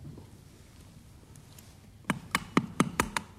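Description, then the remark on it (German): A surgical hammer, called for with a Lexer chisel during hip surgery, strikes six times in a quick, slightly uneven rhythm, each blow a sharp metallic tap standing out clearly over a low background hum. “Hammer.”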